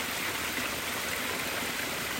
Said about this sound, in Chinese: 光是听这个流水声，就在旁边睡睡一下再走。